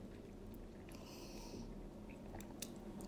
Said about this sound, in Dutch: Eh, even een slokje.